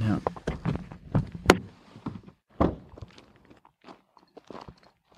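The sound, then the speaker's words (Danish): Someone climbs out of a car: shuffling and thumps, a sharp door clunk, then a few scattered footsteps and rustles on the ground, with brief muffled vocal sounds in between. “Nu går jeg lige ud af bilen.”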